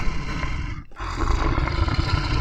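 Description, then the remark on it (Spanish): A tiger roars loudly, a deep, rough bellow that breaks off briefly and then surges back in a sustained rumbling growl. “Un tigre que canta y ruge, que ruge y canta.”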